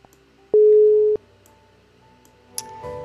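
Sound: telephone call connecting tone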